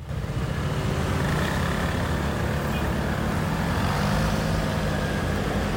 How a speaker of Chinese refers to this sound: 我车是油车，然后跟骑着电动车的时候声音完全不一样。就是骑着自己的油车的时候，就可以听得到很清楚的知道自己的机车的声音，就轰隆隆隆，像这样。